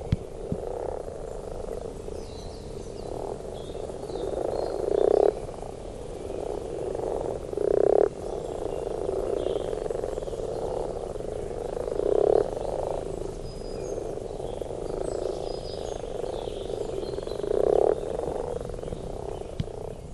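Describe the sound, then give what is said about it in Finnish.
A chorus of frogs croaks steadily at a pond in the morning, with louder individual croaks standing out every few seconds over a continuous low, murmuring background of other calls. “Aamu sammakkolammella”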